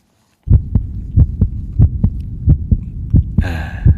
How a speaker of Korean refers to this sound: 심장이 뜁니다. 어린아이 심장 같지는 않고 예, 사랑에 빠진 사람의 심장 소리 같아요.